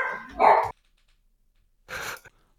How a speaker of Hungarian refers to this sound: náluk most egy másfél óráig ugat a kutya.